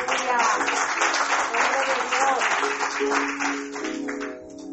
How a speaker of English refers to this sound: a round of applause for Minister.